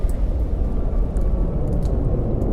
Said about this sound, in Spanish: que el avión viene de regreso. Cuando se, lo, lo volvimos a escuchar fue eh, tirarnos en la arena y meternos abajo de la, de la camioneta. Entonces pasa el avión y vuelven otras otras explosiones.